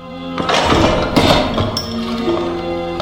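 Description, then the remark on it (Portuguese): A heavy thud as the door of a house is kicked open, a second impact about a second later, then ringing and creaking over a sustained tonal background. “Só então Vidigal soltou-o e meteu o pé na porta.”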